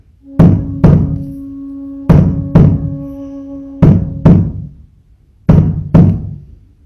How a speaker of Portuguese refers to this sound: E vá fazendo da batida do tambor a batida do seu coração também, como se fosse uma única energia.